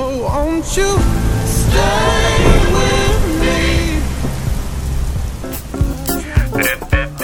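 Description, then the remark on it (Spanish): Steady rain hisses throughout, a dense, even wash of falling water, while a wavering melodic tone glides up and down over it before breaking into short, uneven bursts near the end. “A través de la ventana observa la caída enmudecida del agua.”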